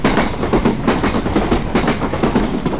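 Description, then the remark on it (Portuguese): A train rolls past on the tracks beside land lying between the Campanhã–São Bento railway line and a disused Campanhã–Alfândega line, a loud, steady rumble and hiss broken by a quick, regular clickety-clack of wheels over rail joints. No voices. “Estamos num terreno que está entre duas linhas, a linha que liga Campanhã a São Bento e uma linha que já não funciona, mas que existe, que liga Campanhã à Alfândega.”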